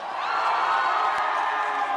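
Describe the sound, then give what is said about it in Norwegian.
A crowd of Norwegian Labour Party (Arbeiderpartiet) supporters cheering and shouting together at the first election forecasts at 21:00, in a steady, loud roar of overlapping voices that holds for about two seconds with no pause. “Og de som hoppa jublende opp og ned allerede da, var Arbeiderpartiet, Senterpartiet,”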